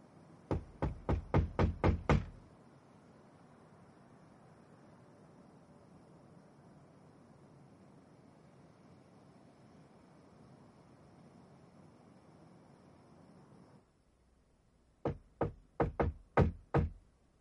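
Someone raps on a door in a quick run of about eight sharp knocks, then a steady low rumble fills a long pause before a second burst of five firm knocks.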